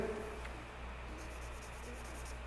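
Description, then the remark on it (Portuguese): Soft scratching of a pen moving across paper in a series of short, quick strokes, faint, over a low steady background hum with no voices. “Deixa eu pegar a caneta aqui.”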